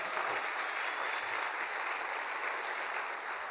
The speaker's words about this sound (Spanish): Amén. Dele un aplauso gigantesco a Dios.